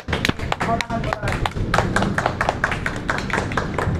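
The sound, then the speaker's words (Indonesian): A group claps steadily and irregularly for several seconds, applauding young people who received nominations, the sharp claps fairly loud, with indistinct voices mixed in underneath. “Tepuk tangan manusia, tepuk tangan.”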